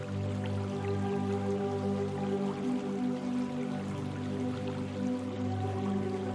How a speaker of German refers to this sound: Lass uns dem kleinen Bach folgen weiter vorn mündet er in einem kleinen Teich mit den wunderschönsten Seerosen.